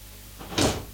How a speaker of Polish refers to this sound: Drzwi otwieram, zamykam. Dobra, może jeszcze raz otworzę i teraz zamknę.